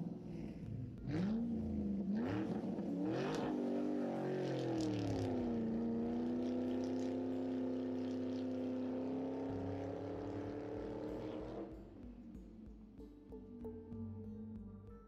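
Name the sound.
car engine driving off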